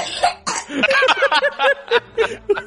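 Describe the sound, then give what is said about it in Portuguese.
A person mimics coughing, a quick run of short, throaty voiced bursts with some laugh-like sounds mixed in, fairly loud and uneven in rhythm. “E tosse na cara do maluco.”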